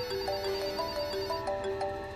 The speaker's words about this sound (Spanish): Volví a poner el teléfono en su sitio y seguí el sonido del teléfono asomando la cabeza en unas cuantas habitaciones diferentes antes de encontrarlo en el despacho.